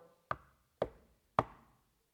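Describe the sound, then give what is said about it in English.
Three firm knocks on a wooden door, evenly spaced about half a second apart, each with a short resonant decay, with no voices. “And then next thing you know, at the door,”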